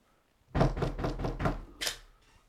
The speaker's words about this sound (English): Yeah, you know, people tell me like when I knock on doors, they think it's the police. Really? Bro, I have a police knock.